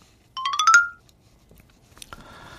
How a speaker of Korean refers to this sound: 얘 뭔데 이렇게 귀엽죠? 다시 한 번요. 네, 딩동댕 소리군요.